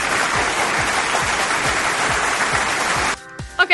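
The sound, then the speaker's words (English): Dense, steady applause fills about three seconds over a faint, regular low thump, then stops abruptly, giving way to a short burst of tonal sound. “So either way, once again, an applause right there.”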